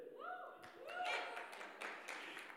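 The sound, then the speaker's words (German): Sparse, subdued applause from a church audience during a sermon, a handful of scattered claps that never build into a full ovation, with voices audible alongside. “Der Applaus ist verhalten, okay.”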